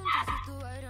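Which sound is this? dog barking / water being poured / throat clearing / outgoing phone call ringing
dog barking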